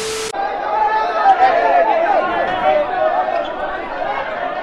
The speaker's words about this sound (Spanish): Vamos a ver lo que pasó cuando llegó al aeropuerto de esta ciudad y fue recibido por una multitud de fanáticos.